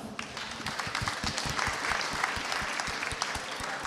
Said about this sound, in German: Trotzdem nochmal ein Applaus ja, für unseren Dank. Kandidaten.